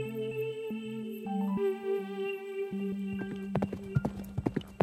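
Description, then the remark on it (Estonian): Galloping horse hooves clatter in quick, uneven beats over the last second and a half as a horse runs out of a forest path and gallops across a field to the road leading to Ristemäe farm, rising over a sustained, droning musical backdrop that plays throughout. “metsarajalt välja jooksis, üle põllu kappas ja Ristemäe talu juurde viivale teele jõudis.”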